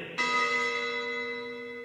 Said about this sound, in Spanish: Que suene la campana que quiero el recreo.